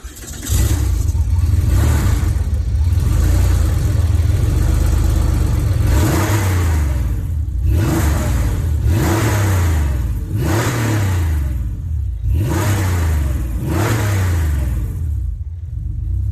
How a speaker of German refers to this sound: Was ihr da hört, ist ein 3,6 Liter Boxer Sechszylinder. Also ja, urtypisch für Porsche. Ja. Und dieser Motor hat 260 PS. Das sind 10 mehr als ein normaler Carrera hatte, damals, Baureihe 964.